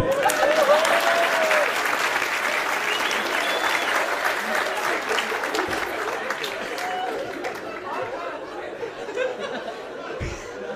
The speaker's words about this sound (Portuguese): Uma salva de palmas para Marcelinho Carioca.